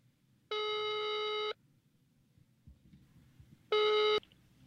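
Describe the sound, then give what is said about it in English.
A phone ringback tone on the line: a steady electronic burst lasting about a second, a pause, then a second shorter burst, heard clearly over faint low background hiss. “Are you uh, is, is he calling this person or is this person calling him?”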